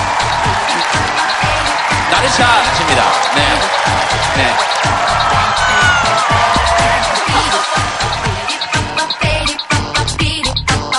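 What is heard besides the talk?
audience applause and cheering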